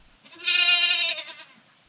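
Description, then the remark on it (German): A single goat bleats loudly, one long wavering cry lasting about a second, with no talking around it; a goat on the Karolinenhof organic livestock farm. “Auch wenn sie herumzicken oder bockig sind, bleiben die Ziegen auf dem Karolinenhof der ökologischen Viehwirtschaft erhalten.”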